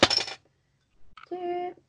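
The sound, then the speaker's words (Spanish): A beer bottle (Birra Moretti La Rosa, an Italian beer) is opened with a bottle opener: the cap pops off with a quick, bright hiss, then after a pause come a few small clicks and a sustained metallic ringing, like the loosened cap clinking and spinning on a hard surface. “Yo la voy a abrir aquí delante de ustedes.”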